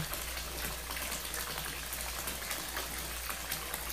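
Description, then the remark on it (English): Water pours steadily from a bath faucet, a continuous splashing rush with no breaks, heard alone, with a faint low hum beneath it. “I reach over and turn off the faucet.”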